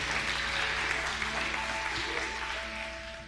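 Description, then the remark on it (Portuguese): A crowd applauds the band at a church service, a dense wash of clapping that holds for several seconds and eases off slightly at the end, with a faint sustained tone humming underneath. “Dê um aplauso para essa banda aí.”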